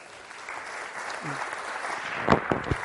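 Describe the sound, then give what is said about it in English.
An audience breaks into applause for Sherry, a dense wash of many hands clapping that builds steadily, with a few sharper, louder claps standing out near the end. “Let's give Sherry a round of applause.”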